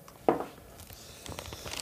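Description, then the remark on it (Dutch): An oyster being pried open with a knife: a sharp crack, then a run of scratchy, gritty scraping and crunching bursts, with no voices. “nou ja, eh, door een man met grote knuisten en een oestermes die ze aan je geeft met wat eh, citroen of olie erop. Even eruit worstelen.”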